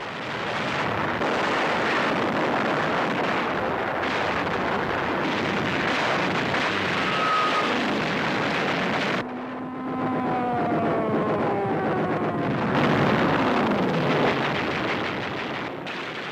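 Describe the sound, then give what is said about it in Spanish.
Loud, continuous roar of Japanese bomber engines droning overhead at dawn over Pearl Harbor on 7 December 1941, with a wavering engine whine sweeping through the middle before the dense rumble returns; no voices. “El 7 de diciembre de 1941, a la luz del amanecer, los bombarderos japoneses aparecen de la nada.”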